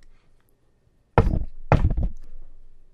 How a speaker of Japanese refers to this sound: コツコツっていう硬いものが触れ合うような音。これ家電の音とかじゃないんですよ。まあ、ネズミかなって初め思ったんですけども、それにしては一定のリズムでコツコツ、コツコツってなるんです。で本当にかすか音なんです。